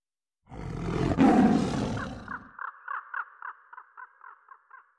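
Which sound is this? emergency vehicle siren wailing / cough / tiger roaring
tiger roaring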